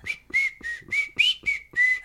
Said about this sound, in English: He's just whistling yeah, away. No, no. He whistles a lot.